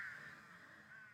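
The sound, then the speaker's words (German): A raven gives one harsh, drawn-out caw that lasts about a second, heard faintly, with no voices around it. “Du stehst hier Gläschen Vino, die Sonne scheint dir ins Gesicht, du hörst die Raben.”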